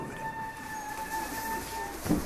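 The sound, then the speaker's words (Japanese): A Nankai Electric Railway train on the Koyasan line in Japan runs steadily, a broad rumbling roar with a sustained high electric motor whine held throughout, and a brief clunk near the end. No one speaks. “本日も南海電鉄をご利用いただきましてありがとうございます走り出しました”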